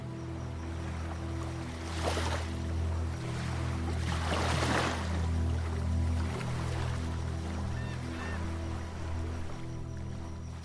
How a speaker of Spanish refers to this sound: Déjate llevar por el sonido del mar.